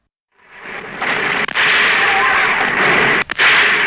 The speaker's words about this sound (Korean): 문화방송의 4.19 현장 녹음 방송은 전국적인 시위 확산의 도화선이 됐습니다. 현장의 총소리가 그대로 중계됐기 때문입니다.